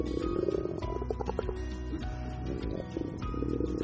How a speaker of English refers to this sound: It's just my stomach's growling. You know, maybe I be- I didn't eat food before I came here, so maybe I'm a bit hungry.